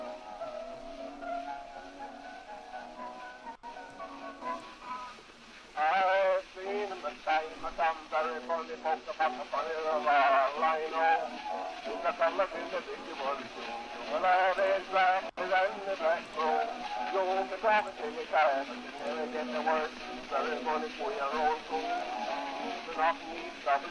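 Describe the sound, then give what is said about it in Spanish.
A tinny, thin-sounding early phonograph recording of a whistling song, well over a century old, plays under steady surface hiss. A wavering melody with voice-like tones comes in after a few seconds and continues throughout. “Eh, no, supongo que en un, en un fonógrafo, foto, ah, hay un montón de aparatitos de estos que empezaron con la posibilidad de grabar el audio.”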